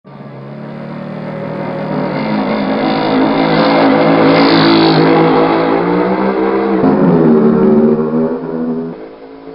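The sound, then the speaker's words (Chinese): A motorcycle engine revs steadily for several seconds as it rides off in heavy rain, its pitch climbing, then dropping briefly at a gear change before winding up again and tapering off at the end. No one speaks. “阿虎说完就骑着摩托车走了。”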